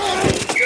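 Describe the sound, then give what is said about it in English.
Football pads collide in two quick, heavy thumps, fairly loud, over a faint background murmur. “Ah, the sweet sound of sports you love from Sling, the collide of football pads,”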